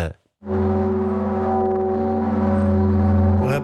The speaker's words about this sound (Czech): Tu večerní bohoslužbu doprovodí i hlas zvonů ze svatovícké katedrály.